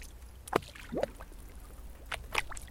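Soft water sloshes and gurgles against the wooden body of an oud swaying in the waves like a boat, in a few brief, irregular splashes, fairly quiet over a low steady rumble.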